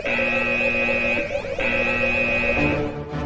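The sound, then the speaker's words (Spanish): A loud electronic espionage alarm, an intruder alert, blares in steady, sustained tones with a brief break in the middle, then resumes before fading; it is a harsh, buzzing alert with no talking over it. “Alerta de espionaje. Intrusas, intrusas.”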